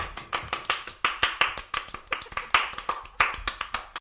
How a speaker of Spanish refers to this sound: Aplaudimos.